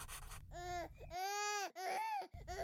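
A baby that has just woken up cries loudly in several strained, wailing bursts with brief breaths between them, the cries rising and falling in pitch.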